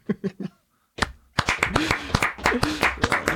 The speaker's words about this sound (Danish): Ja, det kan vi godt. Men vi skal også have vores klappeøvelse